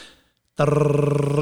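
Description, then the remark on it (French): After a brief silence, a voice makes a steady, rattling buzz, imitating a rotary phone dial whirring back after a finger dials the 5. It holds evenly for almost a second, with no other talk. “Il fallait que tu mettes ton doigt dans le 5. Puis là, tu faisais...”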